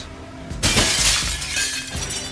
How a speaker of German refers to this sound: Die Fenster des Krankenhauses zerbersten nahezu alle und herausschweben unzählige Klingen von Swordmaiden.